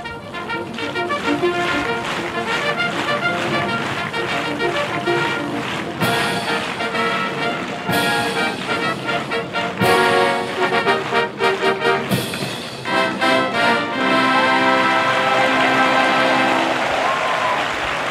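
A live brass fanfare rings out at Hanshin Racecourse before the start of the Osaka Cup horse race, in light rain, with bright sustained notes and rising phrases, then a crowd of about 8,400 Kansai fans bursts into loud, continuous applause that swells toward the end.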